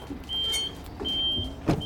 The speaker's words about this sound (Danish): Det er vores øh, fjernbetjening til at kunne øh, køre tavlen op. Så kan jeg styre den inden for bilen af, så jeg har en lille smule sikkerhed. Og så kan jeg sådan få øh, tavlen til at køre op.